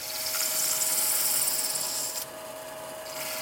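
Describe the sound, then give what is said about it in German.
Continuous hiss of hand-held sandpaper rubbing a spinning brass pocket-compass housing on a lathe, over a steady machine hum, giving it a sunburst finish; the scraping drops quieter briefly near the end, then resumes. “Dann nimmt er Schleifpapier in die Hand und verpasst dem Gehäuse damit einen ganz besonderen Schliff.”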